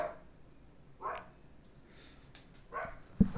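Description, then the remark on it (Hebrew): A pet dog lets out a few short, whiny barks and whimpers, spaced roughly a second apart, at moderate volume, ending with a soft thump; no one speaks. “אה, זה הכלב שלי מסכים איתנו.”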